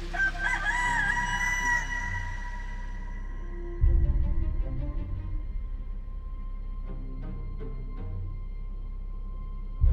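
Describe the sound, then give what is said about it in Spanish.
A rooster crows once at dawn in the distance, across a dark river, a drawn-out, strained call that fades away, leaving a steady low rumble and scattered faint noises for the rest of the time. “a lo lejos, al otro lado del río oscuro, un gallo desafió el amanecer.”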